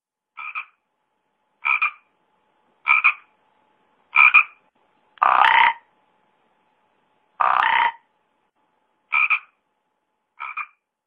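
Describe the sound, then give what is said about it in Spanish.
Toads croaking in a steady series of eight short calls about a second apart, two in the middle louder and longer, with no talking. “Llegaron los sapos saltando. ¡Ay, qué bonitos sapitos están llegando a la casa!”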